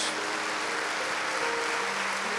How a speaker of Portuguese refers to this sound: Então vamos exaltá-lo com um lindo aplauso em nome de Jesus.